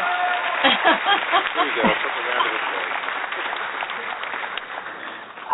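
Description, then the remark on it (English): A crowd claps and cheers in a steady, dense patter that lasts throughout, with voices mixed into the noise and a brief swell at the very end, welcoming guests onto a show. “well, what a great applause.”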